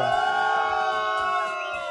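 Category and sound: crowd, crowd booing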